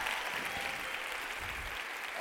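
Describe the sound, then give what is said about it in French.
An audience applauds Brave Together, the Maybelline New York mental health awareness organization, a dense, even wash of many hands clapping at a constant level throughout, with no voices standing out. “On les applaudit tout de même.”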